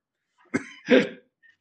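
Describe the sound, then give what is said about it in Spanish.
Two harsh coughs in quick succession, the second louder and longer, with a faint throaty sound trailing off afterward. No one speaks. “Ahí está la evidencia. Cabal, mi tos.”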